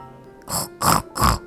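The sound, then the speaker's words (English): Three short, raspy pig grunts in a steady rhythm, each a loud, rough burst with a slight pause between, and no talking. “Sure thing，或者我们可以发出这样的叫声：oink oink oink oink oink。”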